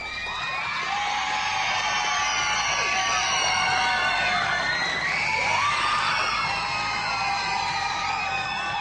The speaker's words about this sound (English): The scream, the the 60 minute din of uh, a thousand children screaming. It was a noise that was unusual. It was it was fun to hear because it was like it showed us that we were doing something right.